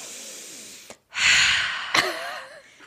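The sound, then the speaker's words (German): A person takes one long, deep, noisy inhale through the nose and mouth, fairly loud, rising in a rush of breath after a brief pause, with a faint vocal tone near the end, acting out someone breathing in after throwing open the window shutters. “Deine Mom steht auf, reißt die Fensterläden auf, atmet einmal ein, so”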